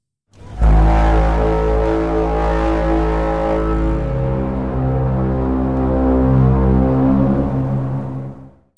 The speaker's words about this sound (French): Ce fameux son émis par les tripodes extraterrestres pour communiquer entre eux. Mais voyons dans un premier temps comment se crée un son brame comme celui-ci.